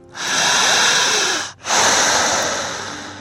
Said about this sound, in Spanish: ¿Está respirando más profundo? ¿Y con la boca? Mi respiración es más lenta, más larga y mucho más profunda.